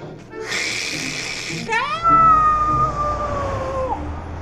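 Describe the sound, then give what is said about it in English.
A voice imitates a noisy radiator under a window as the heat comes on: a breathy hiss for about a second, then a rising whine that settles into a long, steady, slightly wavering tone. “it's a radiator, and the heat makes noise when it comes on.”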